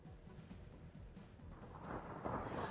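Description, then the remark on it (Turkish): Deep rumbling thunder rolls through steady heavy rain during a morning thunderstorm in Mudanya, Bursa, Turkey, the downpour's hiss swelling louder toward the end as the low rumble lingers underneath, with no voices present. “Mudanya ilçesinde sabah saatlerinde gök gürültülü sağanak yağış hayatı durma noktasına getirdi.”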